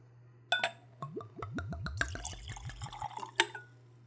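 Whiskey glugs from a bottle with a black plastic screw cap into a clean, tulip-shaped Glencairn whiskey nosing glass in a quick run of rising, bubbly gurgles lasting about two seconds, framed by light clinks of glass before and after, with a low hum underneath.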